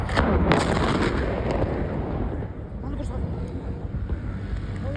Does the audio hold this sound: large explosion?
yes